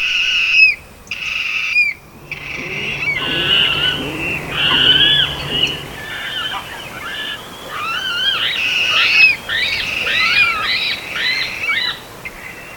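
Water rail squealing, a run of shrill, pig-like squeals and grunting calls repeated rapidly and unevenly, fairly close and loud, over faint background noise with no talking.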